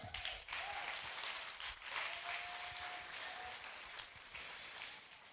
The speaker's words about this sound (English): Get a Lord a hand clap.